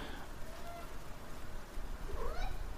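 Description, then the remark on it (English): A cat named Donald meows right next to the microphone, rubbing itself against it: a faint, drawn-out cry early on, then a clearer rising-and-falling meow near the end, over a low rumbling background. “Shut up, cat.”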